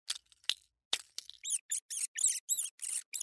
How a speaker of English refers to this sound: This is the sound of a rodent escaping from your mousetraps.